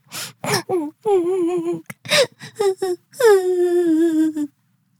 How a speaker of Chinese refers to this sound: 它缓慢地飞过泡芙妹妹的眼前，再仔细听听。泡芙妹妹好像听到哭泣的声音。